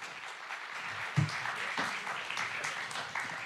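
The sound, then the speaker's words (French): An audience applauds steadily to welcome a tech speaker onto the stage, a dense crackle of many hands clapping at once with no pauses, holding at an even moderate level throughout. “Et vous pouvez l'applaudir pour qu'il vienne sur scène.”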